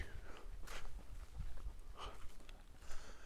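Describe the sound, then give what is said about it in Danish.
Soft footfalls of a jogger passing by outdoors around Bølling Lake in Denmark, a loose series of muffled thuds against low rumbling background noise, fairly quiet and with no talking. “Så der kommer en løber.”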